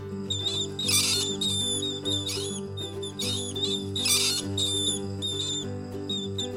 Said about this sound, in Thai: แล้วลูกหนูก็เริ่มเถียงกัน บางตัวบอกให้วิ่ง บางตัวบอกว่าไม่วิ่ง พวกมันส่งเสียงทะเลาะกันดังลั่น